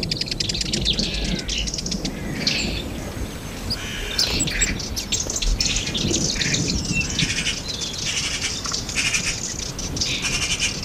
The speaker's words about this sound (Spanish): Estamos en, cerca del estrecho de Gibraltar, en los acormacales, y aquí hay un pajarerío en torno a un zarzal, mientras que el trueno al fondo marca la línea del horizonte.